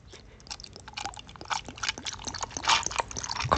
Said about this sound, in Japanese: まず白麹をね、いただきたいと思います。注ぎましょう。